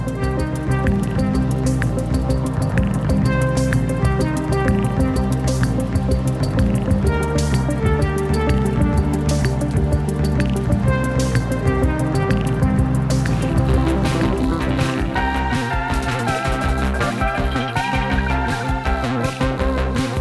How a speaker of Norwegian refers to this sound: Vi kan bare sette oss litt inn i musikken til denne franskmannen som blir 70 år i dag,